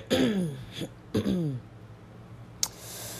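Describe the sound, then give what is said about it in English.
A person clears their throat twice in close succession, each a rough, gravelly rasp, followed by a brief click and then quiet room tone. “Still gonna be clearing my throat for a while, so please be patient.”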